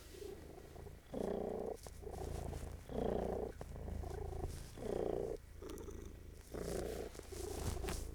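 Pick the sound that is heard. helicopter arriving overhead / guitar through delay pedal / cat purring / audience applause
cat purring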